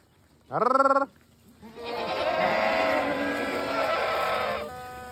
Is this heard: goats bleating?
yes